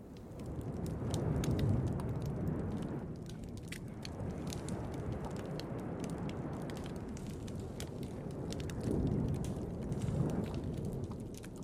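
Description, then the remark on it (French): Underwater recording of a dead coral reef: a steady, muffled low rumble that swells and eases, with sparse faint clicks and crackles scattered throughout and no voices. “Voici le son de coraux morts”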